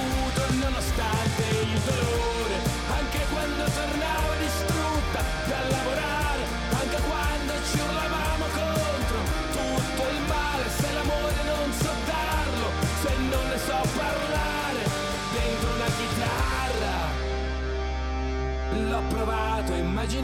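A loud, dense rock song by an Italian rock band plays steadily throughout, driving drums and guitars up front, before the track settles into a held, ringing chord in its final seconds.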